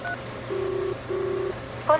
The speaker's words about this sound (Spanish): Mira Navón marca un número de teléfono.